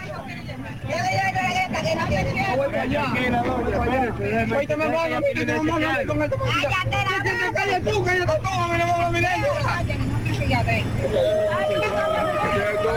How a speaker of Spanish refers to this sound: Bueno, eh, lo que escuchan de fondo es un joven al cual están dándole los primeros eh, auxilios, mejor dicho, estabilizando a un joven. Dicen que chocaron en un sitio, no se sabe dónde fue que chocaron, a dos motocicletas.